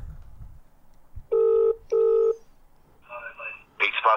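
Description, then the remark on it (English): A phone line rings back twice, two steady buzzing tones in a quick pair, followed by a burst of muffled, crackly noise as the call seems to connect. “If they don't pick up, I might just leave a voicemail and then we'll call someone else.”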